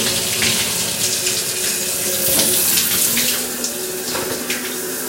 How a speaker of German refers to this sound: Jetzt natürlich nicht in Stereo, sondern in Rotzi-Rotz-Qualität, aber ist ja egal. So, jetzt lasse ich mich einfach mal ein bisschen vom Wasser berieseln.